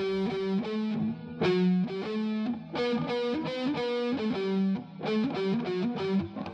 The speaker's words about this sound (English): Do you know God Save the Queen? It goes like this.